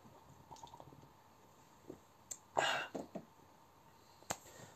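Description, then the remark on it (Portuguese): Someone takes a quick sip of beer: one short, wet slurping burst, framed by a few soft clicks and taps in an otherwise quiet stretch with no talking. “Calma aí que eu vou tomar mais um golinho da minha cerveja.”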